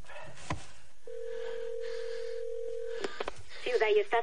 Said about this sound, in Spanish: Vuelve a pulsar el móvil y este se enciende. Marca un número y llama de nuevo.